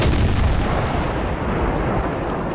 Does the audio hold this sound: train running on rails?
no